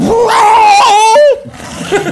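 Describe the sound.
A voice imitates the loud, distorted roar heard over a house door intercom after ringing the bell and waiting a long time, when a woman shouts hello into the handset too close to her mouth and the start gets cut off. It is a single harsh, sustained, strained howl lasting about a second, then it cuts off abruptly.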